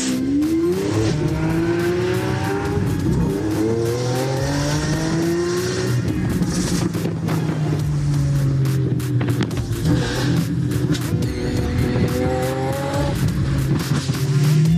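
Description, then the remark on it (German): A car being test-driven revs hard and accelerates, engine pitch sweeping up and down through gear changes while tires squeal and skid continuously over loud, sustained engine roar. “Ich teste gerade das Auto von Abdallah.”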